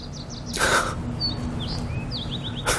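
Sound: small bird chirping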